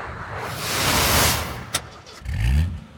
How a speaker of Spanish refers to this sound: Un día después, ya el 20 de agosto, íbamos en camino, ya en el jeep todos apretados. Yo iba en la parte de atrás, entre las maletas, el tripié, la cámara, las papitas, los refrescos y lo que habíamos comprado de provisiones.